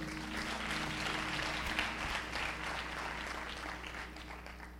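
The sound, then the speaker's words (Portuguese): An audience applauds the Lord steadily, a dense wash of many hands clapping at once, sustained for several seconds at an even level with a faint low hum underneath. “Pode sentar, aplauda ao Senhor.”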